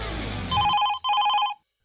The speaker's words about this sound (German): Klingelt das Telefon etwa wieder mal? Verdammt, und wir haben doch gar keine Zeit. Egal, ich heb mal ab.